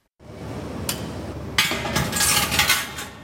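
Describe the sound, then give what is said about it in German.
Workshop ambience at a traditional art-glass glassworks in Frauenau in the Bavarian Forest, Germany: a steady low roar like a furnace, with a sharp glassy clink and a burst of bright hissing, scraping activity as a glassmaker handles a viscous, orange molten glass mass at the nearly 1200-degree furnace. “Ein Glasmacher hantiert am fast 1200 Grad heißen Ofen mit einer zähen Masse, die zunächst immer orangefarben aussieht.”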